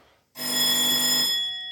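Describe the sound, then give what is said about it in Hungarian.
An ambulance dispatch alert rings out suddenly after a short silence, a loud, steady electronic tone with bright, bell-like overtones that holds unbroken to the end, with no voices present. “Közben közben befutott egy riasztás,”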